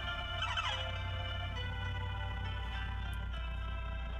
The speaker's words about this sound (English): some sort of truck noise, maybe. Uh, oh, yep, there it is. Big old, big old dumpy truck, little, little garbagey dumpy truck doing a big old dumpy garbage.